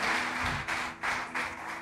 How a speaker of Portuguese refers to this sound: Pode aplaudir bem forte ao Senhor